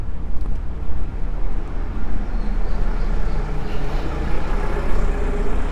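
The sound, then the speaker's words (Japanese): A loud, rattling diesel engine of a fairly new-looking small minibus rumbles, its heavy low growl sustained throughout as it passes and overtakes, with general street noise around and no talking. “すごい音だなあのバスはなんか比較的新しい感じの可愛いミニバスなのに買い古されたおじさんみたいな音がしてるディーゼルエンジンガラガラガラすごいねなんか 追い抜いてったらね襲うと全然違う”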